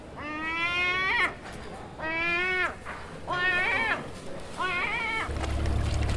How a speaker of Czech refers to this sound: A asi poprvé v dějinách tohoto pořadu tu máme taky šplouchání mořské vody a racky. A to je proto, že jsme tentokrát vyrazili do Benátek